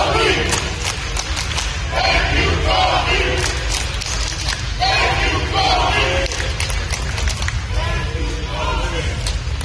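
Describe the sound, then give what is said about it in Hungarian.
A large outdoor crowd of fans gathered outside the Staples Center, bringing flowers and lighting candles, chants and sings in unison, loud and continuous, with rhythmic repeated shouts rising and falling over a dense roar of many voices. “a rajongók is ott vannak a Staples Center előtt, és ott is összegyűltek nagyon sokan, rengeteg virágot vittek, gyertyákat Igen. gyújtanak, énekelnek, skandálnak.”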